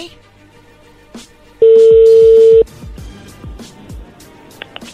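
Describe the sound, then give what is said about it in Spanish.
A telephone being dialed: a loud, steady electronic tone holds for about a second over a run of soft rhythmic clicks, with faint background noise and no talking. “Por favor, no hagan ruido, ahí se está marcando, ¿ok?”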